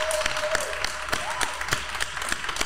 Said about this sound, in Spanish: Le damos un aplauso con todo cariño